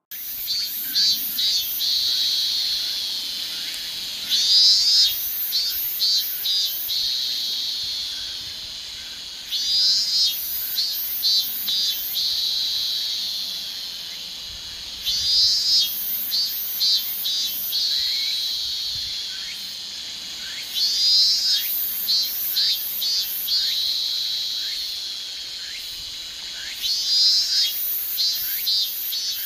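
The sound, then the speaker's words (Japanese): Loud, continuous cicada chirring from a robust minmin-zemi, which sings in the hottest part of midsummer, swelling in regular pulses roughly every five seconds over a steady buzzing drone, with a little tsukutsuku-boshi calling mixed in and no voices present. “夏に一番よく聞こえるのはミンミンゼミです。”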